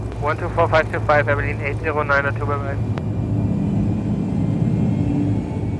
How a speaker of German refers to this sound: Das Flugzeug beschleunigte und als Paul die verwitterten Markierungen an sich vorbeiflackern sah, schloss er die Augen.